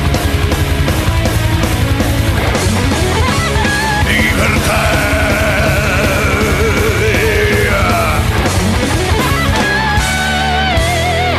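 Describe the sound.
A theater crowd sings along loudly over a rock band, massed voices wavering together in a steady, dense roar, captured with the harsh, slightly distorted sound of a phone recording.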